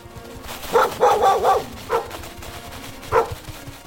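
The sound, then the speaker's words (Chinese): Sled dogs pulling a sled in the Arctic bark in a quick burst of several overlapping woofs, then two more single barks follow after short pauses. Mid-pitched and moderately loud, with no one speaking. “北极圈真厉害呀！竟然想得到找狗来帮忙拉雪橇。”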